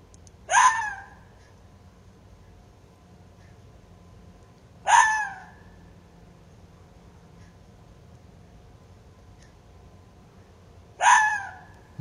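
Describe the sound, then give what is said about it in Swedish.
Three sharp, hoarse mating barks from a male red fox in late winter, widely and unevenly spaced with long pauses between them, ringing out alone over a faint steady low background hum. “Ja, så är det med revens, revens skall, brunstskall på, på vårvintern.”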